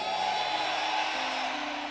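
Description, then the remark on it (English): An audience shouts amen together in a loud, sustained roar of many voices that fills the whole moment, with no single voice standing out. “Can I receive a better amen?”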